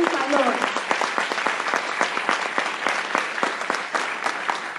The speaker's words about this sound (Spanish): ¿Listo? Entonces vamos a darnos un fuerte aplauso para que nos entreguemos un poquito